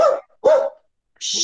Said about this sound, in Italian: Sentirai un po' il cane abbaiare.